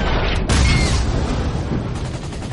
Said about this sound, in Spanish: Un proyectil cae sobre los artilleros de un cañón.